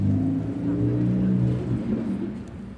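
Traffic rumbles steadily as cars drive past the Karmelitermarkt, engines droning and humming in a loud low-pitched roar that barely lets up, with faint indistinct voices of people eating in the background.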